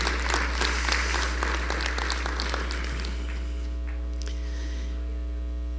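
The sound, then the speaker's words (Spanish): An audience claps for God together in a brisk burst that fades out after a few seconds, leaving a steady electrical hum droning underneath throughout. “Si son, si son para Dios, déselo fuerte.”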